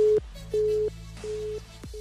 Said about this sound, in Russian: Снова связь забита помехами.